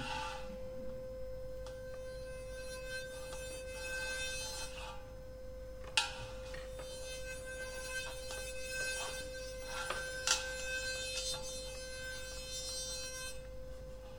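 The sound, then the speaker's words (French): A zinc bathtub, wired to one pole of a rheotome, buzzes with a steady electrical vibration at the rheotome's frequency, a continuous metallic drone rich in overtones, broken by a couple of sharp clicks partway through. No one speaks. “La baignoire se met à vibrer à la même fréquence que le réauto.”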